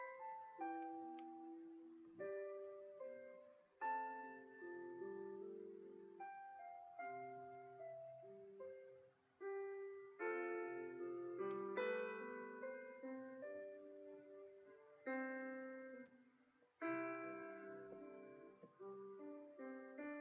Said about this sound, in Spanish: Sí, es la cancioncita del piano, ya, para ponernos e, en modo extrañando a Juliantina.